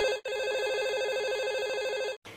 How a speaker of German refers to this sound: Und dann klingelt auch schon das Telefon